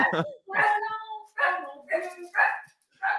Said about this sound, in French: Ah ben oui, énorme chien.